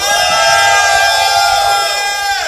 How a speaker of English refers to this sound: Somebody give the Lord a mighty shout.